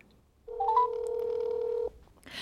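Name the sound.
telephone being dialed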